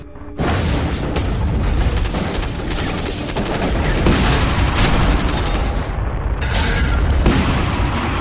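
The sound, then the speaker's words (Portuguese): A loud, sustained crash and explosion of a bomber plane coming down roars for several seconds, dense rumbling booms mixed with crackling debris and bursts of sharp, gunfire-like pops, with no voices. “o bombardeiro caiu próximo de vocês.”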